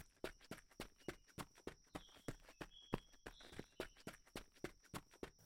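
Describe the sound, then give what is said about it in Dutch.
Steady footsteps of a person on a long walking tour, moving at a brisk, even pace of about three crisp steps per second, with a faint high whine running underneath and no talking. “Wel ik gisteren zo omgedraaid hebben, loop ik nu gewoon verder.”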